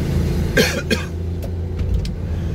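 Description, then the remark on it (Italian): A steady, droning engine hum fills the interior of a small Smart car, low and constant throughout, with a couple of brief rough bursts, like a cough, early on and faint clicks later. “Probabilmente è una macchina un po' rumorosa, vediamo”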